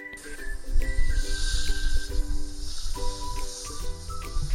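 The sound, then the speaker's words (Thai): A venomous snake hisses in long, breathy bursts, fairly loud, layered over steady background music with sustained tones. No one speaks. “แล้วตอนนี้ก็มาถึงเจ้าสัตว์ตัวจิ๋วที่ร้ายกาจ เพราะว่าจำเป็นต้องปกป้องตัวเองค่ะ นั่นคือ งูพิษ”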